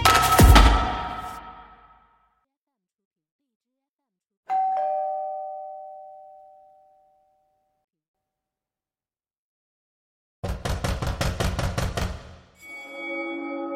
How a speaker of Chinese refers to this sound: 我在半梦半醒之间。听到了门铃声，还有拍门的声音。我从床上爬起来，穿过客厅去把大门打开。